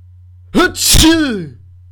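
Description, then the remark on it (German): A single loud sneeze with a sharp inhaled buildup followed by an explosive burst, standing alone over a faint low hum. “Gesundheit, wirst leicht krank.”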